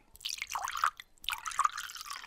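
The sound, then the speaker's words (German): Wine pours into a glass in two bursts with a short pause between, a bright splashing trickle with gurgling, rising tones as the glass fills. No voices are heard. “Moment, ich schütt in.”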